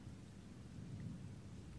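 A steady wash of heavy rain falling on the roof of a garden house, with a low, rumbling undertone like thunder, continuous and even throughout, with no voices.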